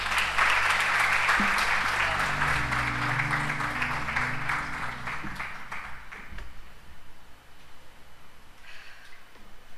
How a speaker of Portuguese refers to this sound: Você pode aplaudir ao Senhor nessa noite.